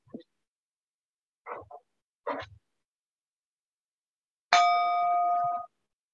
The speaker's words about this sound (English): As we listen to the chime, let us remember our connection to each other and the world around us.